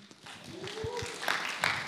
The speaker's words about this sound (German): Ein Applaus für die hinterste Reihe.